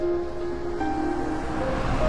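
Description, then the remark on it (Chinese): A vehicle passes in the distance outside an open window on a weekend in Bayannur while light rain falls, a steady low rumble with a thin humming whine layered on top, holding evenly for the whole moment with no voices. “远远的地方有车驶过的声音。”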